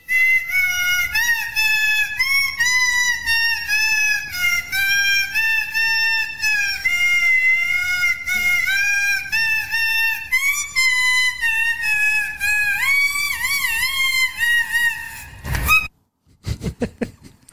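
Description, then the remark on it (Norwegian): A loud, bright celebratory jingle, played for footballer Edvard Tagseth as the day's best player on the pitch, plays alone: a squeaky, whistle-like melody with swooping, sliding notes runs for about sixteen seconds, then cuts off abruptly with a short noisy burst. “Det var kjempebra, og han får en jingle, og vi kjører nå.”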